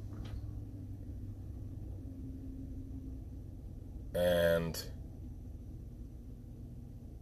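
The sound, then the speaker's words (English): A steady, low rumble fills a car cabin while driving in the middle of an intersection with a school bus present, continuous and fairly loud throughout, with one brief, sharp tonal burst partway through and a voice speaking a single short word. “I'm in the middle of an intersection here while the school bus, there we go.”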